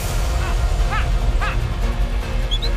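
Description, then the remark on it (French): Sled dogs from a winter mountain race of more than 400 km yip and bark in short, high-pitched bursts, a few separate calls spaced out over a steady low rumbling background. “je suis allé voir les champions de l'Odyssée des chiens de traîneau.”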